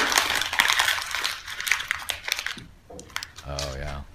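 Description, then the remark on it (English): Senator Pat Roberts, a Republican from Kansas, crumples up a sheet of paper, President Obama's plan sent to Congress, on camera, a dense burst of crackling and crinkling for about three seconds, followed by a brief voice at the end. “He just crumpled that up right on camera in front of everyone on Twitter.”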